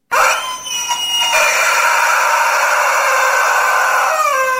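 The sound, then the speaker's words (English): A rubber chicken toy taped to a hand pole on a bus in Nova Scotia, squeezed to signal a stop, gives one long, loud, strained squawk, held for several seconds with a wavering pitch that drops at the end. It sounds alone, with no voices. “So if you wanted to get off the bus, you would squeeze the chicken and then you would hear this horrible sound.”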